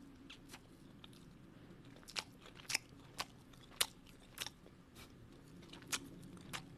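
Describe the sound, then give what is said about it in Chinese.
Wet, noisy chewing while eating a meal at the table, with a dozen or so sharp crunches and smacks at an irregular, unhurried pace over a low steady hum, with no talking. “安静的咀嚼声是可以的，可是不要发出，就感觉就是当他在吃饭，然后现在是不好的餐桌的礼貌，这是礼貌，不是什么礼仪，没有到礼仪的程度，它就是一个礼貌。”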